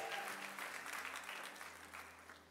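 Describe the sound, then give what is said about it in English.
A crowd claps steadily for a couple of seconds for the sound crew at the back, a dense, even patter of many hands with a low hum beneath it and no voices standing out. “Let's clap for our sound guys in the back.”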